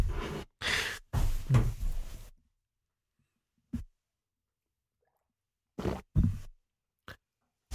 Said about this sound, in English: You have the loudest swallows.